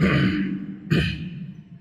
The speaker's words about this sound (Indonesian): berdehem-dehem.